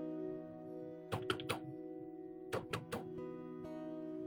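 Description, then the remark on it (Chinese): Urgent knocking on a door: two quick bursts of three sharp raps each, separated by a short pause, over a steady low background hum. “急促的敲门声响起，来了来了。”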